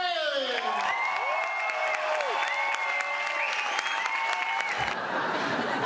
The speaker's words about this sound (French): Mesdames, Messieurs, je vous demande un tonnerre d'applaudissements pour sa première ici à l'Européen, Émeric Lompré